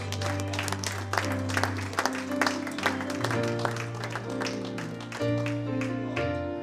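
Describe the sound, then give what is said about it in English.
An audience claps in praise, a dense, steady patter of many hands over sustained keyboard chords and a deep bass line that shifts notes every second or two. “Lord a hand clap of praise?”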